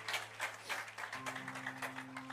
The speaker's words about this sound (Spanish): Si puede darle palmas al Rey de la Gloria, désela con toda libertad.